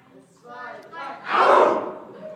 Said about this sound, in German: Kann ich mal Kampfschrei hören?